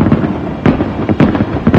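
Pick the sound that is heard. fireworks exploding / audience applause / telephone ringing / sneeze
fireworks exploding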